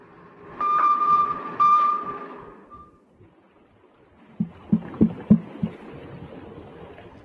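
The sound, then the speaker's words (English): Underwater knocking: a steady mechanical hum with a faint whine fades out, then after a pause about six dull, muffled knocks arrive in an uneven series over a low rumbling background. “They claim that this is the audio and the knocking that they heard from the submarine.”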